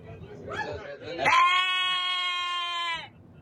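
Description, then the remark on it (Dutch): A person does a convincing goat imitation: one long, steady, nasal bleat held for nearly two seconds, loud, after a brief bit of murmured voice. “Totaal ongevaarlijk en inderdaad heel goed in het nadoen van geit.”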